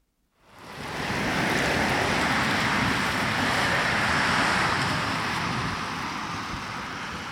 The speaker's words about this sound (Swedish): Där susar ett X2000-tåg förbi järnvägsstationen i Hör.